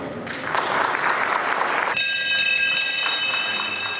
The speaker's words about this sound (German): Ja, das ist hier also die berühmte Glocke, wird natürlich bei solchen Anlässen immer gerne lang und ausgiebig äh, geläutet.